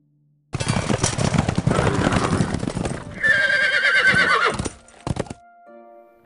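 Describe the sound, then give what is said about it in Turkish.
Nearly a battalion of cavalry horses approaching in a town square neigh and whinny loudly over a dense clatter of many hooves, a shrill drawn-out whinny rising above the noise before the sound cuts off abruptly. “Sesler iyice yaklaşınca cama yöneldim. Meydanda neredeyse bir tabur süvari vardı.”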